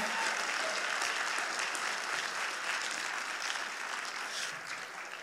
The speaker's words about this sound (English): Uh, in the middle, we got Nax catering. I think everybody enjoyed the meal. How about a round of applause for the team?